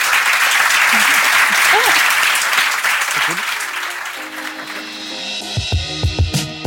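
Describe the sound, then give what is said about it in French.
A crowd applauds the evening's guests at the end of a question session, loud, dense, steady clapping that gradually thins out, while a few scattered voices and cheers rise over it near the end. “Et euh, merci beaucoup d'être venu, Je vous demande juste d'applaudir euh, mes invités ce soir.”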